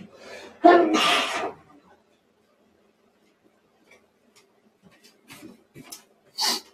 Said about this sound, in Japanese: ああ、くしゃみが止まんない。